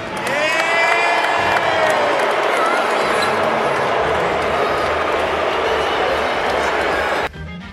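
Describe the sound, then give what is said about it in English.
A big arena crowd at the 2024 NBA All-Star Game boos loudly in a steady, roaring wave for about seven seconds after Damian Lillard is named MVP, with scattered higher shouts cutting through early on, before the noise abruptly cuts off. “Man, you hear the fans booing after Damian Lillard got the MVP.”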